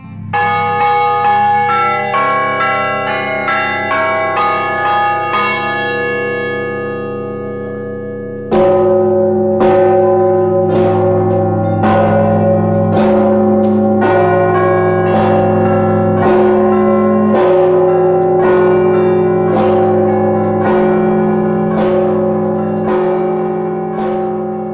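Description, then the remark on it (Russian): Cathedral church bells peal loudly, heard from inside the belfry as bell ringers ring them: a dense wash of overlapping ringing tones with repeated strikes, the deep heavy main bell booming beneath lighter bells that chime in a steady rhythm. “Быть на колокольне во время звона совсем не то же самое, что внизу на земле. Гудит благовестник, у меня в ушах и внутри тоже все гудит – как будто нырнул в пруд, только вместо воды звук.”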